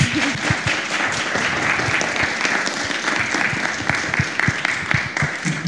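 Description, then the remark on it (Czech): Steady applause from an audience at the end of a talk, many hands clapping in a dense, continuous patter that holds at an even loudness for several seconds with no voices over it. “Tak pojď, zatleskáme.”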